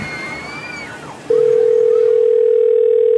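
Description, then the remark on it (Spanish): A steady, continuous telephone dial tone, heard while someone calls an ambulance, starts partway through and holds loudly to the end, preceded by a brief wash of faint, sloshy background noise. “le voy a marcar una ambulancia para que vengan a ayudar a Juan Escutia”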